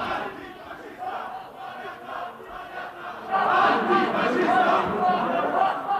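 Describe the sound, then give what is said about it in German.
A crowd of voices chants "Ihr seid Faschisten" in unison, a steady rhythmic protest slogan that swells noticeably louder about halfway through and stays loud, with overlapping shouts and no clear single speaker. “Hier stört gerade eine Vorlesung auf der Ihr seid Faschisten.”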